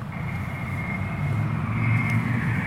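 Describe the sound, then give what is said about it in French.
A car starts and its engine runs with a steady, low rumble and a faint whining tone above it, swelling slightly louder toward the end, with no voices. “Donc là, bon, il y a le démarrage de la voiture, les portes ouvertes, la radio.”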